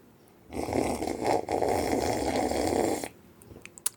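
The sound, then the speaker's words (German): Milk foam sputters out through a metal straw on a homemade rig in one continuous, fairly loud gurgling hiss lasting about two and a half seconds, then stops abruptly with no voices. “wie meine Eigenskonstruktion mit einem Metallstrohhalm funktioniert, wie man Milchschaum zapft”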